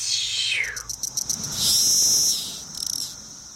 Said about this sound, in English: And so Magicicada cassini is the one that's black underneath, and it's one that has a series of ticks and they get faster and faster. And in the end, there's kind of a little scream at the end. It goes like tick, tick, tick, tick, tick